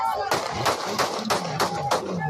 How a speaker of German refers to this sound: Ein Handyvideo zeigt die tödlichen Schüsse auf Villa Vicencio. Auf dem Weg zu seinem Auto wurde er erschossen.